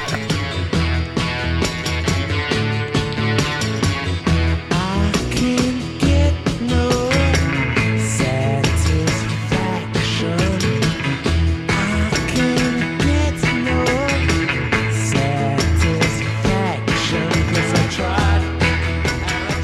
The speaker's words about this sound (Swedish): Jag skulle vilja spela … med ….